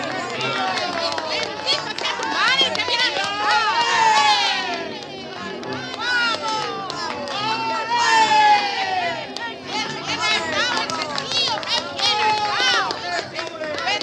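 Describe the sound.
A large crowd cheers and shouts continuously, many overlapping voices rising in loud swells with whoops and yells, a dense roar that never settles.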